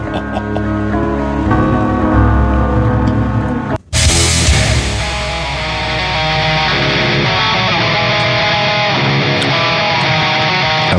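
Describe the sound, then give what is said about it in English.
A loud, dense band recording with thick sustained tones, briefly cutting out for a moment before surging back brighter and fuller, playing steadily with no one talking over it. “This was the first band I was playing.”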